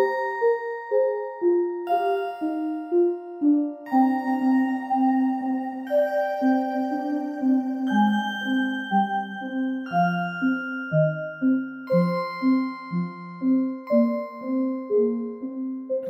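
A gentle instrumental piece composed for Sentorto, a singing vegetable garden project, with bright, chiming plucked or mallet-like notes in a steady repeating pattern over a low bass line, moderately loud with no voices.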